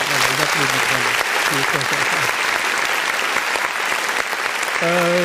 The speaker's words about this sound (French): ça continue à applaudir. Voilà, merci.